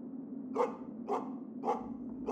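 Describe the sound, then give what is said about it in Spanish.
Dogs bark in a steady series of four sharp yaps, evenly spaced, over a constant low hum in the background, in the afternoon. “No fue hasta que los ladridos de los perros de Luis me despertaron”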